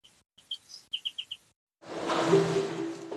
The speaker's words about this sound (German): Beispiel Regenwald von Costa Rica 1989 und 1996 nach Abholzung.